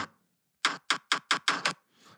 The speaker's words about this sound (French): ça cogne à la porte. On dirait pas, on dirait pas un bruit de cognage de porte, on dirait plus euh, des marteaux.